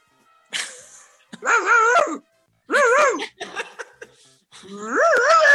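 A human voice imitates a dog with a string of five or so whiny, wavering barks and yelps, loud, separated by short pauses.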